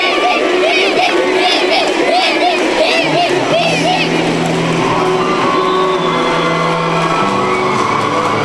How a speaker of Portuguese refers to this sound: …, o baterista que morreu. E a galera grita o nome dele.